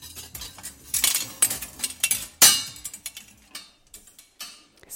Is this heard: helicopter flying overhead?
no